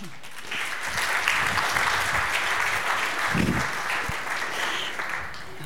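Steady applause from a sizable audience, a dense wash of clapping that holds for several seconds without pause, with a few louder claps near the end.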